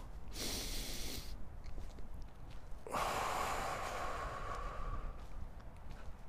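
Two deep breaths during a breathing exercise, clear: a long, airy inhale drawn through the nose, then a longer rushing exhale blown out through the mouth, with no talking.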